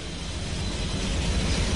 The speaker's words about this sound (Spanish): los mineros saben que se acercan al lugar donde estas sierras eléctricas gigantes trabajan